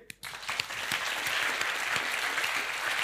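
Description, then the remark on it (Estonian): An audience bursts into steady applause after a brief pause, many hands clapping densely and evenly for the whole few seconds. “teeme aplausi.”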